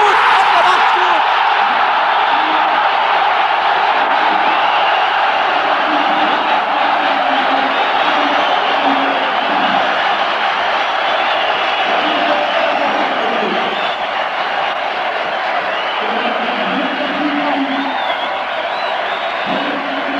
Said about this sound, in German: Jubel in der sicher bemerkenswertesten Begegnung des BFC Dynamo im Europapokal, nachdem man gegen Aston Villa, gegen Nottingham Forest scheiterte, hat man nun einen britischen Europacup-Sieger